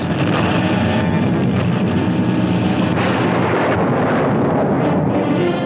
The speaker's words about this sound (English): In western Mexico, a new volcano comes to life. Huge columns of smoke billow skyward as ripping explosions within the fiery crater are heard for more than 100 miles.